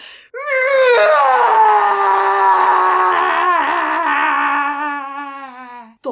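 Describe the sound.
A single long, loud scream rings out alone, held for about five seconds with a wavering tone that slowly sinks in pitch before breaking off.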